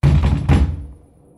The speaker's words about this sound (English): I, I was thinking, who would pound people's door like that? So I run without even fully dressed. And when I opened the door, I saw two guys near my door with the uh, battering ram in their hands.